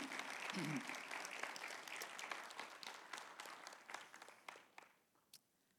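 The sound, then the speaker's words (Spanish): An audience applauds the Lord together in a dense wash of clapping that gradually thins out, leaving a few scattered claps at the end; a brief voice is heard near the start. “Le da un aplauso al Señor.”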